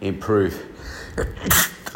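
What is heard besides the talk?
sneeze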